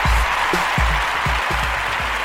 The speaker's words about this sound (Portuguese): Porra, sensacional. Salva de palmas. Salva de palmas. Salva de palmas.